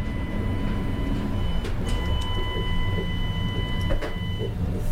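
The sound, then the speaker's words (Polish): A train's accessible toilet powered sliding door, opened with a push button, opens with a steady electric motor whine and a couple of short mechanical clunks, over a constant low rumble from the train. “To jest otwieranie drzwi.”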